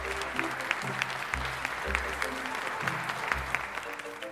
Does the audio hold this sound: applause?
yes